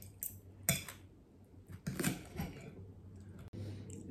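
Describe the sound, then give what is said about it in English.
Crisp crunching from biting into the corner of a Welsh rarebit cheese toast: a sharp crack, then a longer crackly chew and a final snap, over a low steady hum with no talking. “So, I'm going to get this corner bit. Can you hear that crunch?”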